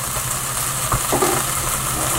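pork sizzling

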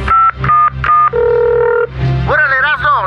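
telephone number being dialed

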